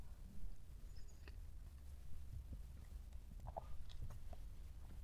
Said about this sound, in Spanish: pausa para trago de café